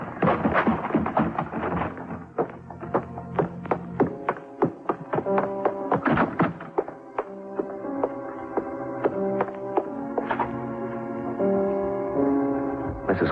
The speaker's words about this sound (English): When I heard the front door slam, I started kicking my way out. The paneling was heavy, and it cost me a torn trouser leg and a scraped shin before I made it.